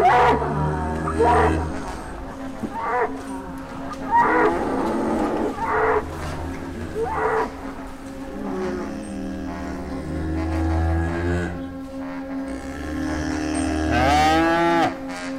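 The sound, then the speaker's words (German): Cows moo in long, deep, drawn-out calls that overlap and continue almost without pause, fairly loud, with one rising bellow near the end. No one speaks. “Die Kühe haben die Augen aufgesperrt.”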